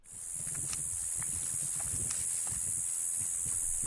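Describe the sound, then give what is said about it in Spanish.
A cicada drones steadily and loudly through the whole stretch, a constant high buzzing, with faint scattered low knocks and rustles beneath it in a quiet nighttime setting. “La chicharra, ahí.”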